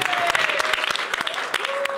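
A crowd applauds with steady, dense, fairly loud clapping throughout, individual claps popping out of the wash, with a faint sustained tone running underneath.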